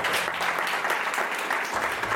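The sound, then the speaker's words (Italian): Steady applause from a TV studio audience, dense clapping that stays loud and even for a couple of seconds with no voices over it. “A voi in studio. Grande applauso.”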